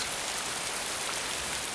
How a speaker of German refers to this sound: das Geräusch ist so schön in diesen Zeiten, in der Regen dringend gebraucht wird.